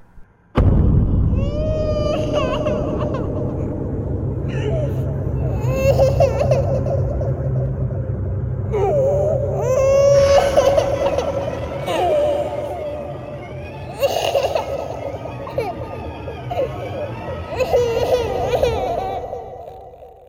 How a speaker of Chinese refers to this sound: 第二天早上，我就问了别的寝室有没有听到婴儿的哭声。而问下来的结果是，除了我们两个寝室之外，没有一个人听到过婴儿的哭声。